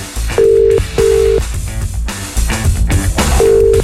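A phone line tone sounds in steady electronic beeps, two close together, then a pause before another, cutting through busy background sound as the call rings out unanswered.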